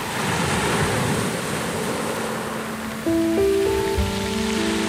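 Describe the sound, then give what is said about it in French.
Steady roar of sea waves breaking against a constantly collapsing cliff on a beach at Habsburg, a small town in Norfolk, south-east England, a dense wash of surf noise that never lets up, with soft sustained musical tones rising beneath it in the final seconds. “Au pied de la falaise battue par la mer, au pied de la falaise qui ne cesse de s'effondrer, le lent travail des marées découvre peu à peu”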